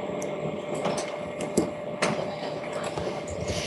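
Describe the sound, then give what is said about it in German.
A very loud printer runs steadily, its mechanical whirring punctuated by a few sharp clicks and clunks, with no voices over it. “Genau, das hört sich nach einem wirklich ähm, sehr äh, lauten äh, Drucker an.”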